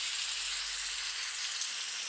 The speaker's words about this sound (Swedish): Ja, ja så kan man bara välja. Här är det regn.